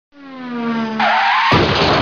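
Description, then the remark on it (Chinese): A sustained, rising tire screech of a skidding Audi car on a newly built bridge in Yangzhou, its driver distracted taking photos with a phone, swells into harsh noise and ends in a loud, booming crash as it hits a harvester ahead, with no voices present. “一个女子开起奥迪，呃，可能她觉得这个大桥比较壮观哈，开车的时候呢，用手机咔咔咔咔咔咔咔拍照，嗯，结果呢一走神，哐的一声就撞到前面的一台收割机。”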